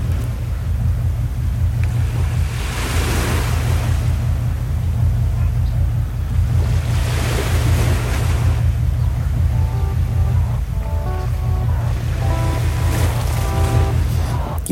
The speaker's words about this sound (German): aber ich lasse euch noch ein bisschen die Wellen stehen.